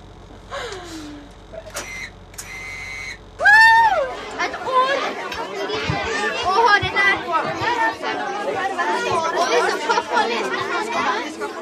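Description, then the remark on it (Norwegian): A few short electronic tones and a rising whistle open, then a dense crowd of about 120 kindergarten children in winter suits chatters and squeals as they come aboard a book boat library heading for the bookshelves, many high voices overlapping continuously to the end. “Som bokbåtbibliotekar går hverdagen fort fra stille kaffekopper på blikkstille fjord til kaos med 120 barnehagebarn med tilhørende skjærokser og vinterdresser som skal av på vei inn til bokhyllene.”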